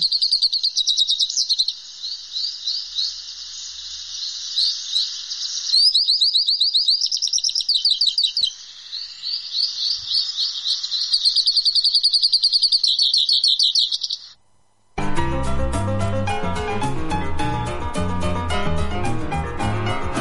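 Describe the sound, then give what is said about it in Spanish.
A hooded siskin sings a long, rapid twittering song of high chirps and trills, bright, for about fifteen seconds before music cuts in and fills the rest. “Estamos escuchando el bello cabecita negra.”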